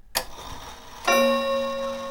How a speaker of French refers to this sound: La pendule sonnait.